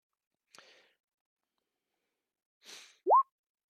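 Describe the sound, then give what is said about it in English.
A short digital dice-roll effect for an investigation check: a sharp click, a pause, then a soft rattling burst ending in a quick rising electronic bloop. It is clean and fairly quiet, with no voices. “Yeah, oh, there's sound effects that dice too.”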